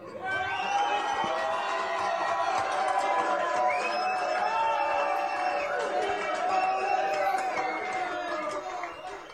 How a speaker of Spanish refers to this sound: Y una ovación acá del público.